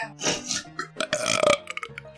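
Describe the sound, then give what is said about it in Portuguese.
A loud burp drawn out over about two seconds in several rough, throaty pushes, as if shaping syllables, trailing off into a few shorter gulping bursts. “Vocês conseguem falar rotando?”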